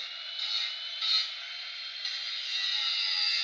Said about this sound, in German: Titus flext und hämmert wie wild. Ja. Also die Flex ist relativ dezent, aber sein Hämmern ist schon